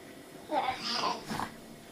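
A nearly one-year-old baby girl grunts and strains at a kitchen table, with a couple of short, effortful vocal bursts and breathy noises packed into about a second, then quiet. No one talks.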